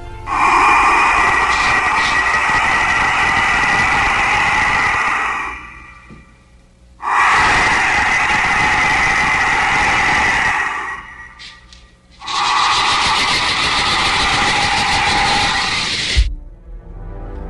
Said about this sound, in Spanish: Es el sonido que abre las puertas de la muerte, pero de una muerte terrible además. Sí, Juan Jesús, mire, David Leonardo dice, brutal esos silbidos.